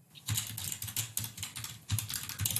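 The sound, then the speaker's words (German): Rapid, continuous clacking of keys on a mechanical keyboard, fairly loud, with a dense irregular rhythm of individual keystrokes and no voices. “ich habe äh, eine mechanische Tastatur mir zugelegt.”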